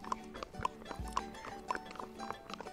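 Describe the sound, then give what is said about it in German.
Horse hooves clack on asphalt in a steady walking rhythm, sharp hollow knocks about twice a second, fairly quiet, with faint background noise and no talking. The horse walks along a path where only tractors may drive, just after crossing a road. “Und die Hufe klackern hier auf dem Asphalt.”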